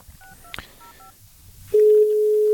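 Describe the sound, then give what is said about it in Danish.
A quick run of short two-tone telephone keypad beeps as a number is dialed to call Home Life Group Limited, with a brief click among them, followed by a loud, steady, mid-pitched line tone that holds to the end. “Altså, jeg føler, at jeg taster det samme nummer ind igen og igen.”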